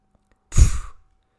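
A single powerful whoosh of the first whale exhaling through its blowhole, heard from a boat that has left a bay: a deep, breathy burst lasting about half a second before fading out, heard alone.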